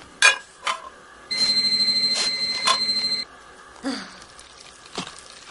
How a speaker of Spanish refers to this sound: Empezaba con esta llamada de teléfono. Mira, mira, escucha.